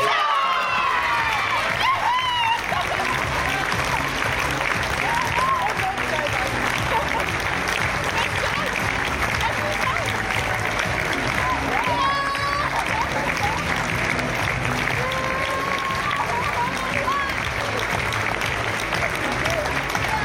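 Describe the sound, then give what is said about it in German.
A large crowd bursts into loud, sustained applause mixed with cheering, shouts and a few whistles as the winner of the 2023 Spiel des Jahres game award is announced. The dense clapping continues unbroken for about twenty seconds. “da ging es natürlich dann extrem ab und klar, das war, das war der Favorit dafür, dass das so ist.”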